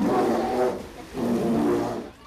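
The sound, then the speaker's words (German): Two deep, drawn-out polar bear growls, each lasting about a second with a short pause between them, loud, with no other sounds around them. “Der Eisbär so.”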